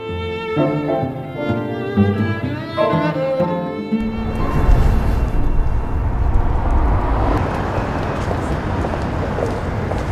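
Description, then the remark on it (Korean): A short musical phrase gives way to a steady, loud rush of street traffic, a continuous roar of passing vehicles on a busy road in downtown Washington, DC, with no voices. “차들이 오가는 분주한 도로 하지만 수면 카페 리차지의 문을 열고 들어가면 딴 세상에 온 듯 조용한 분위기가 펼쳐집니다.”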